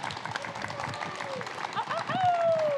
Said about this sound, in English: Big round of applause for Kaci Lickteig.